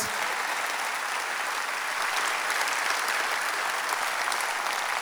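Sustained audience applause, a dense steady patter of many hands clapping at an even level for several seconds, with no talking over it.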